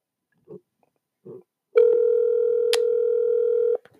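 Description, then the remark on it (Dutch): A phone's ringback tone: one steady, mid-pitched beep held for about two seconds, preceded by two faint short blips, with a small click partway through. No one speaks. “okay, we zitten hem dus even te bellen.”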